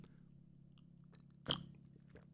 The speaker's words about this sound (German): erstmal einen Schluck Tee genommen